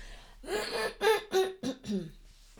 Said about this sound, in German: Oh, ich muss mich nochmal räuspern. Das tut mir wirklich leid. Heute ist schlimm.